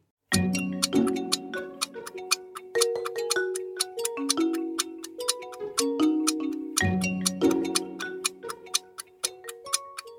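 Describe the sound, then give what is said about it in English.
A countdown clock ticks steadily for ten seconds during the final round of a quiz, with sharp, evenly spaced clicks over a looping musical bed of sustained tones, fairly loud, with no talking. “Ten seconds on the clock. Here we go.”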